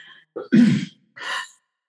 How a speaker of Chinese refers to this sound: 有听到我父亲的咳嗽声吗？